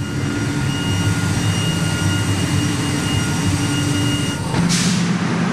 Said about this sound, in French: Alors le bruit que tu entends là, c'est la production d'air. Hein. Pour faire de l'ozone, bah, l'ozone c'est quoi C'est un gaz. Donc on a besoin de produire de l'air. On va le compresser, on va le sécher pour plus qu'il y ait d'humidité.